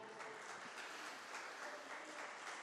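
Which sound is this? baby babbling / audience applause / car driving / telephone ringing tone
audience applause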